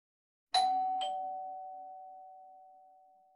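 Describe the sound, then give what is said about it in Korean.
A doorbell at a half-underground house with barred windows, pressed after going down a few steps, chimes a two-note ding-dong, a bright higher tone followed by a lower one, both ringing out and slowly fading over a few seconds with no voices. “우리는 안쪽으로 들어가 계단 몇 개를 내려간 뒤 배를 눌렀다.”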